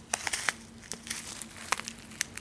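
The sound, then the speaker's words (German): Irregular crinkling of a thin plastic tea bag wrapper from an Advent calendar, with sharp crackles and rustles scattered over a couple of seconds against a quiet background hum. “Man riecht echt wenig durch diese Plastiktüten durch.”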